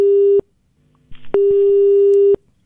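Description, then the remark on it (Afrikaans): A loud, steady telephone busy tone after a dropped call with two guests sounds twice, a short burst then a longer one, separated by a brief gap with faint muffled noise, clear with no talking. “Ja, skus, ons het lyk like my ons het twee van ons gaste nou verloor.”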